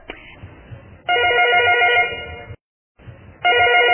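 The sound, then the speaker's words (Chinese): A telephone rings in two loud electronic bursts, each a steady, bright warbling tone lasting over a second, separated by a short silence, with the second burst cut off. Faint low background noise sits underneath. “大姐啊，啊，对不起，我接个电话吧。”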